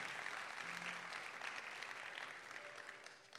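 A church audience claps steadily in applause to the Lord, a dense wash of many hands applauding together, tapering off slightly toward the end, with no one speaking over it.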